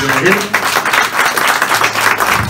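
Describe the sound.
An audience applauds, a steady wash of many hands clapping at once, dense and fairly loud throughout, with a few faint voices mixed in beneath the clapping.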